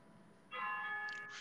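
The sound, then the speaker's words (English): A church bell strikes partway through and keeps ringing with a shimmering, sustained tone, heard faintly in the background with no one talking. “So like you hear these bells in the background.”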